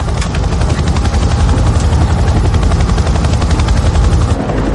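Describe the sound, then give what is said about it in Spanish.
A helicopter on a clearing, as a man on a stretcher is put aboard: rapid rhythmic rotor thumping and a heavy low engine roar, steady throughout with no voices. “Lo meten en un helicóptero.”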